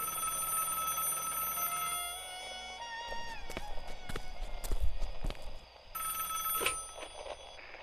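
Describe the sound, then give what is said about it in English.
A home telephone bell rings in two bursts separated by a pause, loud, with a few knocking, footstep-like clatters in the gap between rings, on a calm, cold evening on 2 November 1948. “My wife and I were just having a conversation when when the phone rang.”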